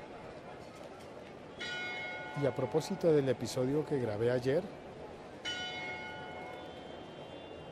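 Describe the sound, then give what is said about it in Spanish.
Church bells of the Iglesia de San Francisco ring with sustained, shimmering tones, fading and then striking again, while a person talks over the first stretch of ringing. “Esas campanas que suenan son las de la iglesia de San Francisco.”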